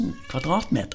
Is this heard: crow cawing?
no